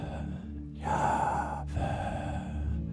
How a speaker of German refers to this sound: Oder ist es einfach der Laut, den es macht, wenn du atmest? Jahwe.